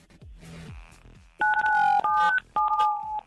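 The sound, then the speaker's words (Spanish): Three loud telephone keypad tones sound in quick succession, each a steady dual-pitched beep lasting about half a second, after a quiet stretch of faint background noise: a caller pressing 977 on her phone to spin a radio station's prize wheel. “Ok, entonces presiona en tu teléfono el 977 para hacer girar la ruleta regaladora.”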